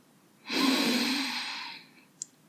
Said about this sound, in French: Prenez une grande inspiration.